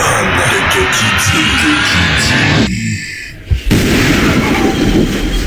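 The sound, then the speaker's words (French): A loud explosion sound effect: a dense, rumbling roar of blasts that dips briefly, then a sharp boom bursts in and the roaring continues, with no voices. “Oh, ça explose boum, chakalaka.”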